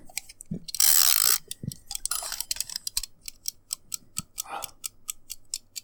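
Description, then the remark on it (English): A spinning chat timer sound effect: a brief bright whoosh, then a steady run of sharp ratcheting ticks at an even, quick pace, with no talking. “You spin up the chat timer?”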